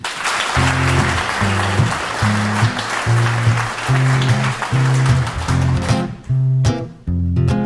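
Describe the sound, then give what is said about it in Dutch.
Steady, loud audience applause for a performer being introduced fills the whole clip, with a rhythmic band playing repeated low chords underneath; the clapping thins out near the end as the music continues. “Dames en heren, geef hem een applaus”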